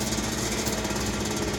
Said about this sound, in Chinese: 我还发动摩托车。